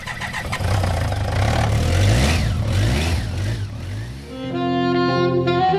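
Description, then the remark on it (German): The engine of a BMW motorcycle with sidecar turns over and revs loudly in several rising, throaty surges for about four seconds, then gives way to steady sustained tones. “Auch Christon Dieter Wolf auf ihrem BMW-Gespann. Wenn es denn kommenden Samstag anspringt.”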